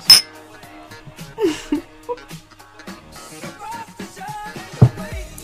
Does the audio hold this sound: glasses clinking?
yes